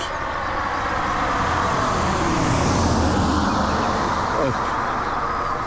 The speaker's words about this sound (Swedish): en mindre landsväg här och ser en bil komma lite längre bort